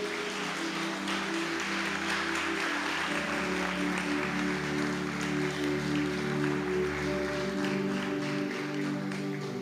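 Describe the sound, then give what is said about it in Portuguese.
A standing church audience applauds in praise of God steadily throughout, a dense wash of many hands clapping at even loudness over sustained, organ-like chords held underneath. “Glória a Deus, aplauda novamente a Ele.”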